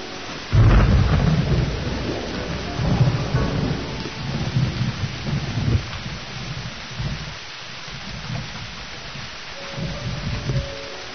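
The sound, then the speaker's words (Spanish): A loud crack of thunder bursts in near the start, then deep rumbling rolls on and off over steady heavy rain, with more low thunder swelling toward the end, as a great storm begins at the Big Ben clock tower in an animated story. “chocando ambos contra el famoso Big Bang, el reloj de la torre rompiendo cristales y entrando en su interior cuando empieza una gran tormenta.”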